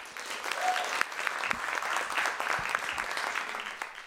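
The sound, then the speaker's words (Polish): An audience claps steadily for several seconds, a dense, even patter of many hands with a few sharper individual claps standing out, moderately loud throughout. The applause welcomes Zofia Wichłacz, the star guest of the afternoon. “Brawa dla Zosi.”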